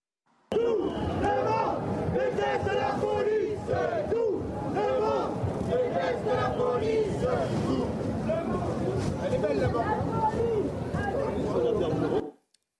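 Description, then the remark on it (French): A large crowd at a demonstration chants the anti-police slogan "Tout le monde déteste la police" in unison, voices loud and dense, sustained for about twelve seconds with steady repeated cadence and background shouting. “Justement, Rudy Mana, je voudrais vous faire écouter ce slogan qui est bien souvent scandé dans ce type de manifestation.”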